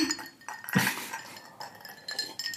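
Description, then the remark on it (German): Glasses clink together with a bright, ringing chink near the start, followed by lighter tinkling and faint rattles fading over a couple of seconds, with no voices. “Also wenn ich immer die Vorstellung habe, Entspannung ist mit einem Cocktail auf der Liege Prost, liegen und nicht gestört werden.”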